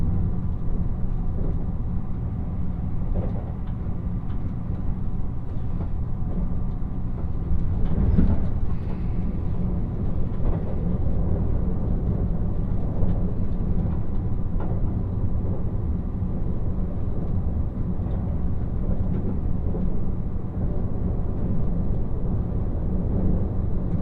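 Steady onboard rumble of a Nishi-Kyushu Shinkansen bullet train in motion from Nagasaki towards Saga, a dense low-frequency roar with a constant hum, brief rattles and one slightly louder swell midway, no voices heard.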